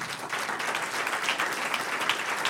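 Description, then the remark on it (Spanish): A church audience applauds the Lord steadily, a dense wash of many hands clapping at an even level for a few seconds with no one speaking. “Un aplauso al Señor.”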